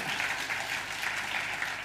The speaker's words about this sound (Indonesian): Oke, okay, boleh sekali lagi tepuk tangan paling meriah buat Tuhan, Bapak Ibu.